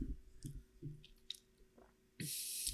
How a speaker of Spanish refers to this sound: Déjenme dar un, traguito nada más, voy a dejar un poquito el micrófono.